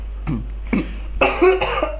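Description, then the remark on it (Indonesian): A person coughs a few times: two short, separate coughs followed by a longer, rougher, more voiced one, with no talking. “batuk nggak nih iya yeah.”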